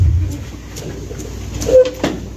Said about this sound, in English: He slammed the door. The paddy wagon was now sealed all of a sudden, I felt hot.